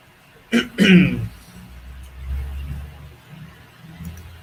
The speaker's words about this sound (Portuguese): Meu arroto ou o filme, mano?